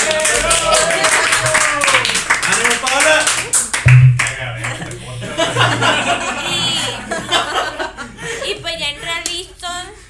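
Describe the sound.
An audience breaks into loud, dense applause mixed with laughter and chuckles; the clapping thins after a few seconds while scattered laughter and voices carry on.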